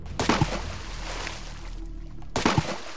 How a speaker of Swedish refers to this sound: av pingvinerna som dyker där ner.